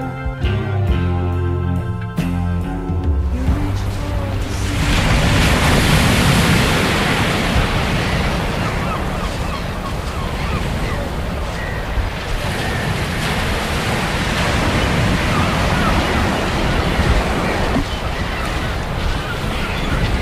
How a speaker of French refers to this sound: Trop de vent, trop de vagues surtout. La mer est montante. Faut prendre des marques pour pas que le matos se fasse tremper.